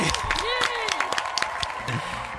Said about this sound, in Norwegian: Ok, med det, takk for at dere kom. En stor applaus